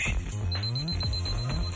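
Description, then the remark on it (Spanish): A smart device alarm rings with a repeating electronic melody of rising tones, clear and fairly loud, cycling twice in quick succession with no voices over it. “Ordena a tu asistente virtual que ponga la alarma de tu dispositivo inteligente.”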